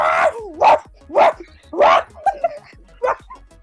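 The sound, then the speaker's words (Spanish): A dog barks loudly, five sharp, harsh barks in a quick, uneven series with short gaps between them and no other sound around them. “Y este perro le ladra muy duro, muy duro, muy duro le ladra, muy duro le ladra.”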